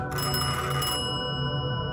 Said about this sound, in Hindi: जब उसका antique phone फिर से बजा